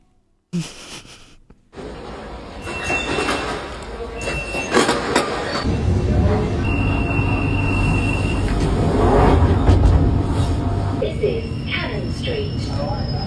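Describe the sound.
A train in London rumbles along the rails with a steady low roar that builds over time, punctuated by metallic clatter and brief high-pitched wheel squeals, with faint voices underneath.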